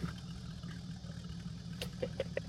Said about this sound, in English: Carburetor uh, sounds a little gunked up. Yeah. A little bit.